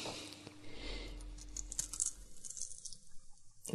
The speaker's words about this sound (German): So, dann schäle ich den Ingwer eben.